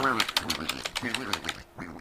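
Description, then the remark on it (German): Rapid, irregular clicking of keys on a keyboard as someone types e-mails, with a steady voiced, quack-like sound running underneath the tapping. “Ich hoffe, dich stört mein Tippen nicht.”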